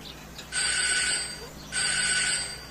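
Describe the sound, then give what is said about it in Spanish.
A doorbell rings twice in quick succession through a house early in the morning, each ring a bright, shrill electronic tone lasting under a second. “El timbre suena en toda la casa.”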